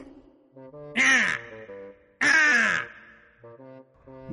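Two loud, harsh caws ring out about a second apart, each a raspy crow-like call from a red bird, with a faint tonal melody playing softly underneath.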